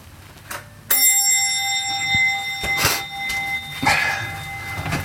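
A doorbell rings with a bright metallic chime that begins sharply and hangs on as a long, shimmering tone, followed by a softer second ring a few seconds later. No one speaks.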